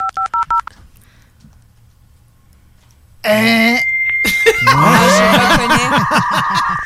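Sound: dial-up modem connecting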